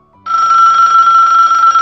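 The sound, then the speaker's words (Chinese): A mobile phone rings with a steady, continuous electronic trill, bright and fairly loud, starting abruptly after a brief moment of quiet and sustaining without pause. No one speaks. “哎，你想象一下，你正上班呢，你手机响了。”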